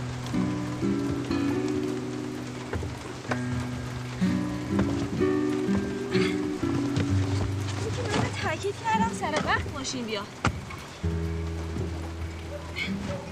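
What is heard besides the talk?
rain falling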